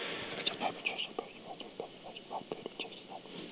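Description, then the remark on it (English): A voice imitates a hushed, whispered prayer over food in a public place, a rapid string of breathy, unvoiced murmurs and soft sibilant bursts, quiet, lasting a few seconds with no clear words. “Now, I don't make a big scene and I don't get up and get real loud so people will see me, but I don't tone it down and go,”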